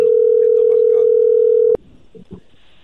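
A steady, loud telephone dial tone holds a single pitch for nearly two seconds as a radio call-in line is dialled, with faint talk underneath, then cuts off abruptly, leaving quieter murmuring voices.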